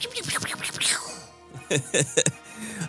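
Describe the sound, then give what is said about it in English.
A voice imitates blaster fire, a quick string of sharp 'pew' bursts, after an earlier stretch of rough, grumbling vocal noise like a low roar, fairly loud. “and it was a, a, a great uh, pew, pew, pew, and a, and a grumble roar.”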